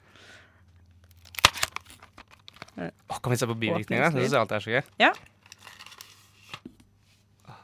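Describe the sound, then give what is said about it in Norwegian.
A paper leaflet is unfolded from a box of Paracet, a painkiller and fever reducer, giving brief crinkling and rustling bursts that continue faintly while people talk over it. “En veldig fin liten lapp som ligger inni denne Paracet-boksen.”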